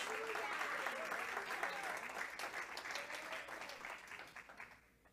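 A church audience claps for God together in a dense, steady burst of applause that holds strong for several seconds, then thins out and fades away at the end. No one speaks over it.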